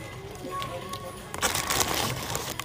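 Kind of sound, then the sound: food or drink, chewing food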